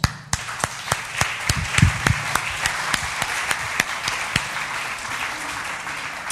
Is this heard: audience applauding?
yes